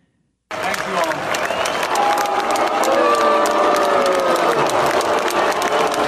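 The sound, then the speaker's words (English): A large commencement crowd in a stadium boos loudly and steadily as Vice President Pence is introduced, long drawn-out voices mixed with scattered clapping and cheering, starting after a brief silence and continuing without a break. “You guys hear the booing?”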